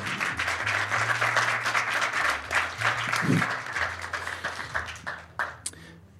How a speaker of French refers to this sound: Merci beaucoup, merci au public, on peut les applaudir.